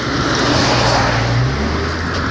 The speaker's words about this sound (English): And just from the crowd's reaction, I swear to God, these rattly trucks, and there's no reason for it that I can think of. Like this particular street, I can't think of a reason why there have been non-stop rattly trucks.